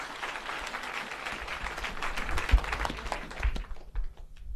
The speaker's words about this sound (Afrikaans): Prys, kom ons gee vir haar 'n klap. Amen.